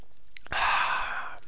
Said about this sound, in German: Das ist hier so ganz fein aus Frankreich äh, sage ich jetzt einfach mal. Natürlich ist Mineralwasser mit Kohlensäure versetzt. Da trinke ich jetzt mal, bevor.